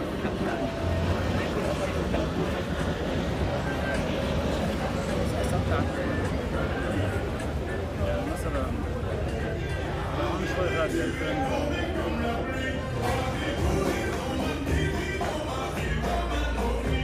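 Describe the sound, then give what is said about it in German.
A busy beach ambience in Beirut, Lebanon: steady surf-like roar with music playing, aircraft droning overhead and people chattering, all blended into a dense, constant outdoor wash. “Also ich habe Musik gehört und Flugzeuge und wahrscheinlich auch sowas wie ein Meeresrauschen im Hintergrund, ne?”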